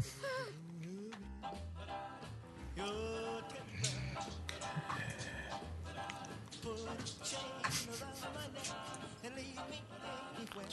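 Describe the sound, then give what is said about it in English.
Dogs' nails click and tap irregularly on a hard floor as the just-fed dogs walk around before lying down, a scattered patter of light ticks mixed in with people talking and laughing. “hey, hey, they're just doing their walking around before they lay down.”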